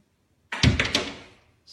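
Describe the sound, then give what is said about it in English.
A kangaroo standing outside a house knocks and claws at a plate glass window: a burst of three quick, heavy thumps with rattling scrape that fades over about a second, then a brief faint knock. No one speaks. “this friggin' kangaroo is like knocking and clawing at the glass”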